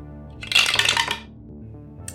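dice being rolled

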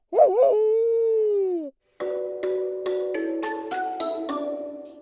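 dog howling

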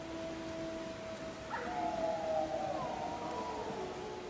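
wolves howling

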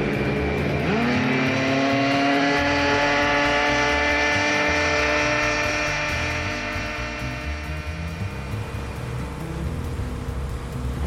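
motorboat engine accelerating

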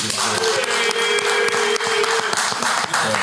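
audience clapping and cheering

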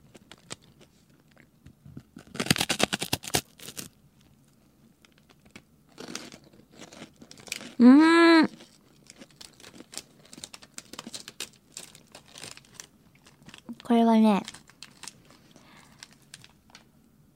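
chewing crunchy food

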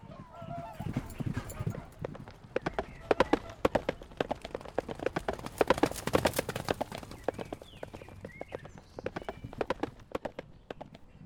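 horse hooves galloping away

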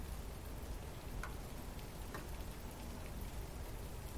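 heavy rain falling

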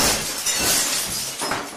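glass shattering sound effect

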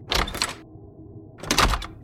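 door opening

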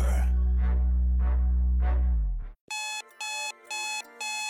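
alarm clock ringing

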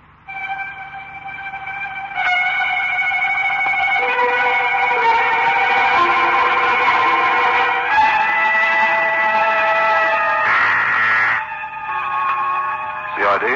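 ambulance siren

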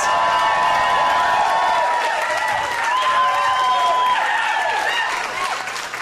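audience applause and cheering

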